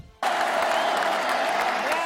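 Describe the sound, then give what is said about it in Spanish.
A crowd bursts into sustained applause, a dense, even roar of clapping that starts abruptly and stays loud throughout, with no voices standing out. “Ovación con saludos”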